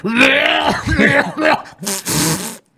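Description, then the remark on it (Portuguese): A voice imitates the raspy, phlegmy coughing and throat clearing of old men, several rough bursts in quick succession, loud, with gravelly groaning tones between them. “Os velhos começavam a tossir.”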